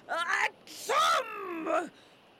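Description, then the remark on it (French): A voice imitates a lion's huge sneeze with three loud, breathy, strained vocal bursts in quick succession, building toward the explosive release. “il éternue si fort qu'on dirait une tempête.”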